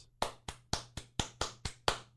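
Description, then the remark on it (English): Sharp, even claps in a steady rhythm, about eight in two seconds, like a crowd applauding in unison as the President of the United States describes limits on Second Amendment rights, with a low hum underneath and no voices. “And you listen listen to the applause when he describes, "Hey, your rights have limits, scumbags."”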